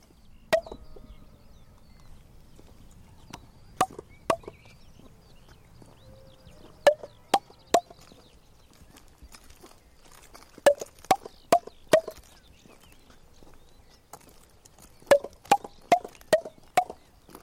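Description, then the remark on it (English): Sharp single hand claps ring out in small, irregular clusters in front of a huge concrete hall, each with a brief echo, growing slightly louder as the person clapping slowly walks toward the hall. “han klapper og så langsomt går hen mod.”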